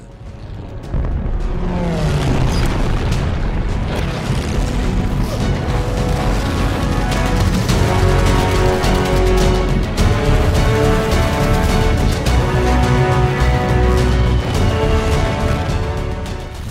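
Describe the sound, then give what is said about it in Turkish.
A dense, relentless barrage of booming explosions and crashing impacts from about 300 Japanese bomber and dive-bomber aircraft raining bombs on American forces, over a steady droning engine roar, loud and sustained throughout after a brief quieter opening, with no talking. “Yaklaşık 300 kadar Japon bombardıman ve pike uçağı gökyüzünden yağmur gibi bomba yağdırmaya başladı.”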